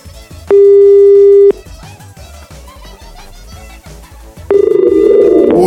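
A telephone ringing tone while a phone call is being placed: a steady, mid-pitched beep lasting about a second, a few seconds of quiet line noise, then a second identical beep starting, rougher and partly masked by noise.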